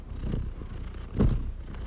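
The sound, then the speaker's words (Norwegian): A pet domestic cat purrs steadily in an ASMR recording, a low rumbling throb that swells louder midway through before settling back, with no voices. “Nei, jeg er ikke så god på purringa.”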